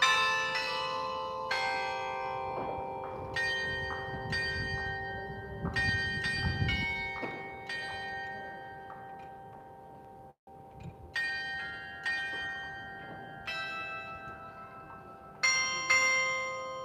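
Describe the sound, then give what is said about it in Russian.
Clock tower bells chime a slow melody striking twelve o'clock, each strike at a different pitch and ringing out with long, shimmering decay. The bells sound loud, with no talking. “А эти колокола, они типа играют в разные тональности.”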